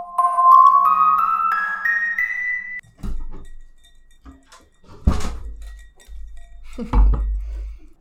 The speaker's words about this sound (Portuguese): Ai, agora sim. Eu já ouvi o barulhinho do gelo no copo.